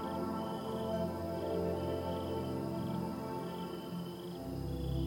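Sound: crickets chirping at night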